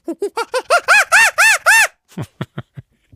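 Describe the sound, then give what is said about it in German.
A person vocally imitates a monkey with a rapid series of rising, chattering hoots that grow louder and more excited, then trail off into a few short, breathy grunts. “Und ich kann sehr guten Affen nachmachen. Ich zeige das einmal ganz kurz.”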